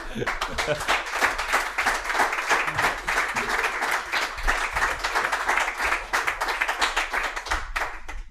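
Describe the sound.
Steady applause from a group, dense overlapping claps filling the whole stretch at an even, fairly loud level, with a voice or two faintly mixed underneath.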